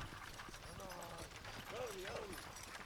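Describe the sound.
Horses' hooves clip-clop in a steady, uneven rhythm over soft ground as a team of horses pulls a six-pounder cannon amid a column of U.S. Army soldiers marching through pine woods in central Florida, moderately loud, with a murmur of voices and a brief tonal call rising partway through.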